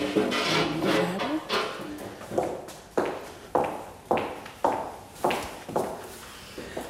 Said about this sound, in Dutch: Zo even naar de gang lopen.